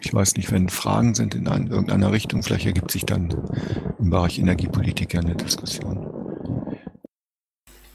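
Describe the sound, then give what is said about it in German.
A man talks steadily for about seven seconds, his voice carrying a reverberant echo that smears the ends of words, before it cuts off into a moment of silence. “So, ja, erstmal sorry für den Hall.”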